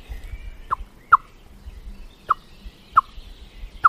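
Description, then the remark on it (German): Sharp, short blackbird alarm calls at a cat ring out five times at uneven intervals, growing more frequent as the cat walks off, each a clipped bright note, standing clearly above a low background hum with no one speaking. “Es wird schneller, der Alarm. Der Alarm wird schneller, mhm.”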